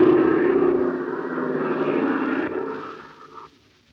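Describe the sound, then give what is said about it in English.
Steady droning of the twin engines of a bimotored cabin plane circling over an air battle, with Ivan Shark at the controls. The drone is loud and holds a constant hum before fading down toward the end of the few seconds. No voices are present. “Circling over the unequal sky battle is the bimotored wing cabin plane with Ivan Shark at the controls.”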